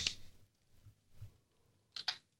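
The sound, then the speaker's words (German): A few sparse, crisp clicks and taps from a computer keyboard as someone searches on Google, quiet, with a short double tap near the end and stillness between strokes. “Jetzt muss ich ja selber googeln hier, ey.”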